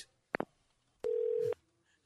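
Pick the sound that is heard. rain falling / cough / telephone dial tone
telephone dial tone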